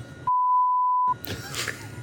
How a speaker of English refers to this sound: me and a friend I'm going to say his name and we're going to beep it out for legal reasons.